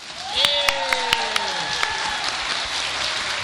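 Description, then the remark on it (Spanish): A studio audience bursts into applause, a dense wash of clapping with a few sharp claps standing out early and high, gliding cheers or whistles near the start, then steady clapping to the end. “Aplauso para que se escuchen al aire.”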